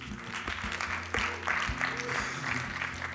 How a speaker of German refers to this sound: Ähm, großartig. Ein Applaus für dich.